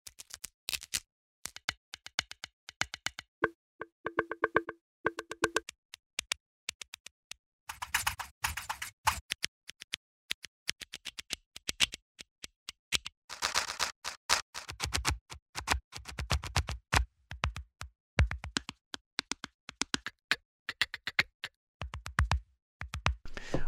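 A long run of crisp, dry sampled snare drum hits, recorded with up to five velocity layers and twelve round robins, played in quick bursts and rolls with varying loudness and no voices.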